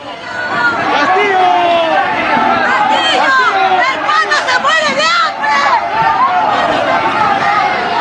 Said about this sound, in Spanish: Y vamos a acompañar al presidente hasta este tramo, ya que va a ingresar por el frontis y se está generando ya un alboroto, lamentablemente.